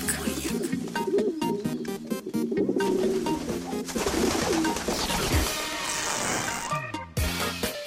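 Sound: pigeons cooing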